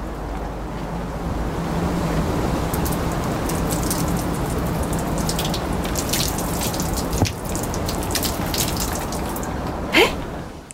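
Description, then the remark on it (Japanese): Steady dense patter of water dripping off a Silent Umbrella onto the ground as water is poured over the umbrella from a watering can, a continuous splashing wash with brief brighter drips near the end; no voices. “それは、あれなんですよ、うん、傘からこう地面に滴り落ちている水の音なんですよ。”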